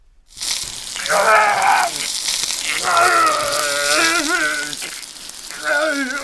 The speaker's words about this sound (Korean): 낙형은 일명 단근질이라고도 합니다. 불에 달군 쇠로 몸을 지지는 형벌이지요.